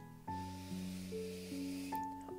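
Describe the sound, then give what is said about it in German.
A long, deep breath drawn in, a steady airy hiss lasting about two seconds, over soft sustained musical tones that shift slowly underneath. “Wir atmen zusammen ein”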